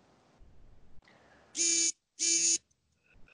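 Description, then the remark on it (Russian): Two loud, buzzy electronic beeps from a phone's SMS notification, each lasting about a third of a second with a short gap between, harsh and tonal with a strong midrange drone and bright upper harmonics. “А что это у нас? смс да, какая-то пипикает?”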